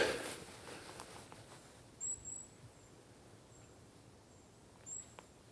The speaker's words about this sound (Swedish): Och fåglarna hörs lite grann här nu innan det blir totalt mörkt en ganska nice tid på dygnet. Precis innan skymning så här på hösten.